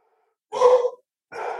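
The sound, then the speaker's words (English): A dog makes two short, breathy huffs, each lasting about half a second with a brief pause between them. No one speaks. “Just, just give me a second while the dog.”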